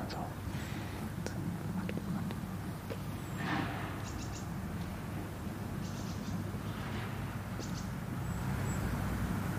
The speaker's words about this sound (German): Vögel hört man noch